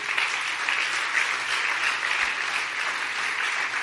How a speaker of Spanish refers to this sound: Dale un buen aplauso de alabanza al Rey.